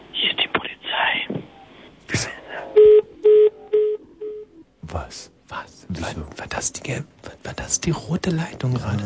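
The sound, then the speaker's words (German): Four short, evenly spaced telephone dialing tones from the red telephone beep at a steady pitch, preceded by hushed whispering and followed by people talking. “Gut, wir müssen jetzt, glaube ich, jetzt schon wieder das rote Telefon.”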